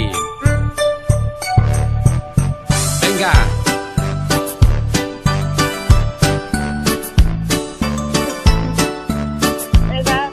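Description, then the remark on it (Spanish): A bright, upbeat Christmas song plays loudly, with jingling bells and a steady bouncy beat throughout, while a voice briefly calls out one word near the start. “Esta es la canción que quiero que tú me cantes durante 15 segundos.”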